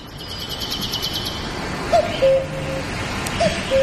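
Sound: forest ambience with birdsong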